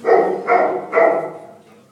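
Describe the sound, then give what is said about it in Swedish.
Three loud dog barks at a dog boarding kennel in quick, even succession, each a sharp burst that trails off briefly, with the last one fading into quiet. No voices. “Och sen tar man emot dagishundar som kommer och andra pensionatsgäster som ska sova över här.”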